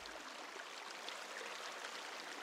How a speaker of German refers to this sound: Und weil sich sonst nichts mehr rührt, klingt das Plätschern der kleinen Bäche viel lauter.